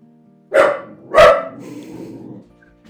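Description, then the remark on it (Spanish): A dog, Tana, lets out two loud, sharp barks on a mountain, about half a second apart, followed by a low, quieter rumble that trails off. “Aparte, No sé a qué le ladra, pues estamos solos en la montaña”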